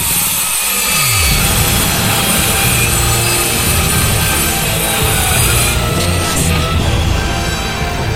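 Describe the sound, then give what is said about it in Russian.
A chainsaw roars loudly and steadily, its engine dipping in pitch near the start before settling into a harsh, continuous buzzing drone that fills the whole stretch with no voices. “как мы с вами договаривались, пропустите сейчас через тела наших слушателей электрический заряд в тысячу вольт, чтобы и самых бесчувственных протаранило этой бензопилой от макушки до самой... до самого копчика!”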